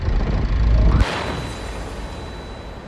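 A deep, heavy rumble builds and then breaks into a sudden, powerful car bomb blast from a white Toyota Corolla loaded with an enormous bomb in front of the Danish embassy, followed by a long hissing wash of debris and noise that slowly fades.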